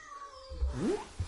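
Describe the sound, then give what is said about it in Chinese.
A single meow from a household pet cat named Zhiming, an internet-famous cat, a short rising-then-falling cry lasting about half a second, followed by a brief soft chirp. Low background hum, no talking. “而且其实就有你家猫是吧？”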